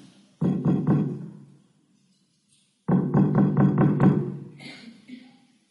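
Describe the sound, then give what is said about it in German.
A door knocker strikes a door with heavy, resonant thuds: a quick run of about four knocks, a pause, then a longer burst of about six, loud, with nobody speaking, as sedan-chair bearers knock at a house door in a raging wind. “Sie waren daher herzlich froh, ihre Last endlich an Ort und Stelle niedersetzen zu können und fingen an, mit dem Klopfer die Tür zu bearbeiten.”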